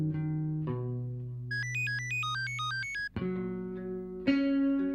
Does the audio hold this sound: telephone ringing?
yes